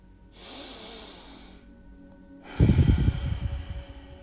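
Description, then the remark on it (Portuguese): Two deep, loud breaths through the nose as part of a meditation exercise: a long airy inhale, a brief pause, then a forceful, rougher exhale with a rumbling, snorting texture. No one speaks. “Inspira pelo nariz e exala pelo nariz. Eu quero que você continue fazendo essas inspirações e essas expirações bem profundamente.”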